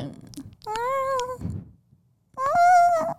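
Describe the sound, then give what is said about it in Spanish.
A person imitates a cat, giving two drawn-out, fairly loud meows separated by a short pause with a faint breathy rustle between them. “La que yo puedo hacer es el, el gato.”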